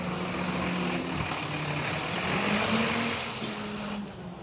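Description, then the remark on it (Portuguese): A garbage truck engine rumbles steadily, its low drone shifting pitch slightly as it rolls along a street amid broad traffic noise, with no talking. “O caminhão tem que dar cobertura pro coletor pegar.”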